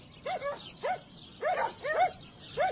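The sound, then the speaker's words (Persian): Dogs bark off in the distance, five or so sharp, fairly evenly spaced barks over a faint background hiss, with no voices present. “صداهای طبیعت تو گوشم میپیچید آواز گنجیشکا ماغ کشیدن یه گاو که معلوم بود حسابی از گرما شاکیه واق واق دور چند تا سگ”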